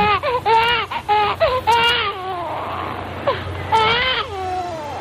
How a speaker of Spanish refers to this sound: Pero todos llegábamos con dos cosas. Con un llanto, que era un saludo a la vida fuera del vientre de nuestra madre.